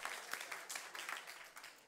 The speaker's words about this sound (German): Lasst sie mal einen riesen Applaus geben. Vielen Dank für euer Engagement. Danke.